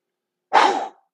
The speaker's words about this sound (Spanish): pero entonces tomamos aire lentamente por la nariz y cuando ya sintamos que no se llena la caja torácica, exhalamos fuerte. Sacamos el aire rápido. Unas cuatro veces de esa manera.